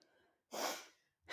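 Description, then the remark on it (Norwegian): A loud, sharp intake of breath, like a sudden gasp to catch air, lasting about half a second, followed by the start of another breath at the end, as a speaker catches breath after forgetting to breathe. “Jeg glemmer å puste.”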